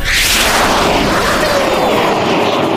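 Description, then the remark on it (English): A loud, sustained roar as Winnie and Wilbur's rattling scrap-metal rocket blasts off, a dense wall of rushing noise with a falling whine sweeping downward, steady and powerful throughout with no voices. “The rocket blasted away.”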